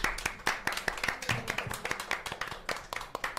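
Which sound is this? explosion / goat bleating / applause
applause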